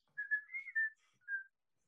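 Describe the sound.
A person whistles a short, bright melodic phrase of several connected notes, then a brief pause and one final held note. The whistling is clear, with no talking.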